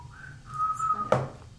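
person whistling a tune

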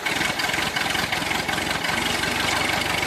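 tractor engine idling

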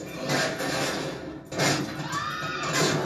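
spooked horse neighing

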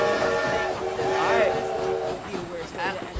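train sound effect

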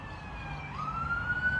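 emergency vehicle siren passing

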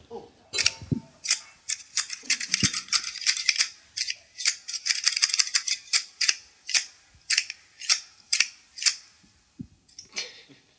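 scissors cutting

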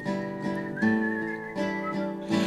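people whistling

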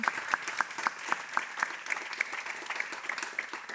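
audience applause

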